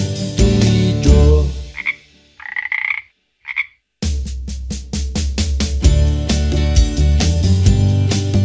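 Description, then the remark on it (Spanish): A few short, nasal frog croaks sound in a brief gap between stretches of loud, bouncy music with a steady beat; the croaks come in quick, clear bursts. “Dime si tú sabes cómo hace la rana, vamos a escucharla”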